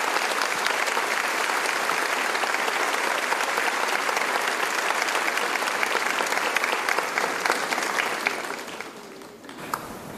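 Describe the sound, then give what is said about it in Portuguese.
An audience at an evening gathering claps to welcome a guest speaker and his interpreter, a dense, sustained wash of applause holding loud and even for about nine seconds before thinning out at the end. “Então abra o seu coração, receba com alegria e com uma salva de palmas, por favor,”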